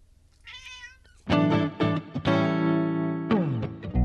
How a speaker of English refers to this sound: Say meow into the mic. Say meow.